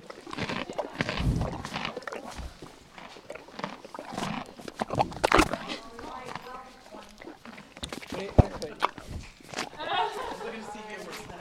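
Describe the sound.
A horse named Smoke, at Equilibrium Therapeutic Riding north of Saskatoon, snorts and whinnies while hooves clip-clop on hard ground, with people talking quietly in the background.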